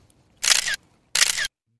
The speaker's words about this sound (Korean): 음 카메라 셔터 소리군요.